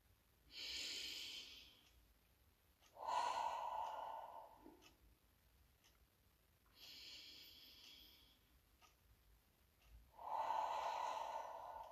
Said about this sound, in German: Und wir atmen wieder dreimal tief ein und aus.